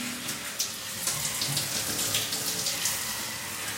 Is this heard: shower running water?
yes